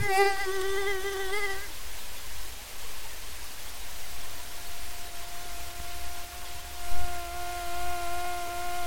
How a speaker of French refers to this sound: J'hésitais un peu à vous faire entendre le moustique